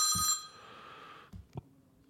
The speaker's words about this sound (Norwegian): Skal du ta telefonen? Nei. Ringer opp igjen. Jeg kan slå av lyden. Det er sånn knapp som er funnet på sida av telefonen her. Så går det an å slå av lyden. Du har sånn uh, utrolig irriterende Du har liksom valgt den mest irriterende ringelyden.